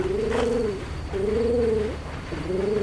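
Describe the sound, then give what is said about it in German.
A person imitates a pigeon's coo as a signal, three drawn-out, wavering hoots with short pauses between them, fairly loud with no other sounds around. “meinen Taubenruf vernommen, nickte er zufrieden und blickte sich erwartungsvoll um.”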